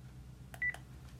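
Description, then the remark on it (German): A single short, steady telephone keypad tone sounds between two soft clicks while a phone number (5, 6, 3) is entered, over a faint low hum, with no talking. “Ich habe jetzt ein Telefon genommen. 5, 6, 3.”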